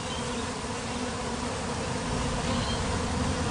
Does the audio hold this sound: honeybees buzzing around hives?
yes